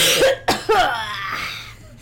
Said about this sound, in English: I just I just cough into the shirt right, like this.